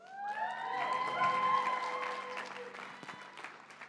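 An audience claps steadily for a few seconds, a dense wash of applause with a few scattered cheers and whoops rising above it before it tapers off.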